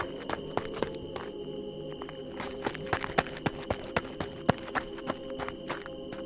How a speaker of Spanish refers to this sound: Pero de pronto, escuché unos pasos.